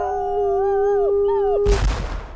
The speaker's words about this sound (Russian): Выстрел Сквозь ельник над настом треснул